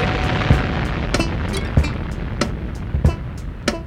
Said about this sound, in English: Motherfucking explosion!